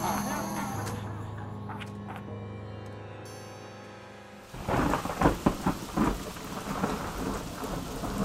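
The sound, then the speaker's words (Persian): A low, steady drone gives way midway to light rain pattering against the window glass of an army barracks infirmary in dark weather, with irregular small taps over a soft hiss. “هوا تاریک و باران نمنمی به شیشه میزد داخل مریضخانه پادگان روی تخت لم داده بود.”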